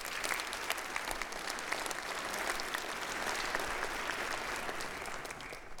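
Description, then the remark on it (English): A church crowd claps steadily in a round of applause for the deacons, a dense patter of many hands that stays even and sustained for several seconds before easing slightly at the end. “Give these people a round of applause as they have.”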